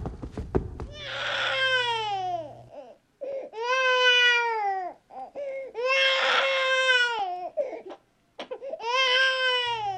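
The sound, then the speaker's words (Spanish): A frightened baby wails after a fall in four long, loud bursts, each a strained, high-pitched cry with short gasping pauses between, sounding frightened and upset. No one speaks. “Entonces, el bebé que está muy asustado se calma con el cariño.”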